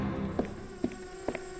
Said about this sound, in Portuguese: Um drone sobrevoando a minha empresa!